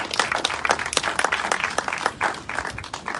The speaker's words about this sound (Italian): E lo faremo stasera con Francesco Borgonovo, che insomma non ha bisogno di presentazioni, invito a fargli un applauso, ma credo che sia anche superfluo.